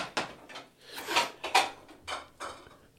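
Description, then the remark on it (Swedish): Someone unloads a dishwasher: a string of scrapes, soft knocks and a couple of bright ceramic clinks, spaced irregularly over a few seconds, with no one talking. “Eh, och så eh, tömmer stumpan diskmaskinen här, så det här blir bra.”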